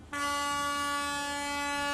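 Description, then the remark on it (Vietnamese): A train horn at a railway station blasts suddenly and holds a single loud, steady, sustained tone for the full two seconds, rich with bright harmonics and no speech. “Tiếng còi tàu từ mỗi sân ga sẽ còn ngân vang mãi trong lòng người.”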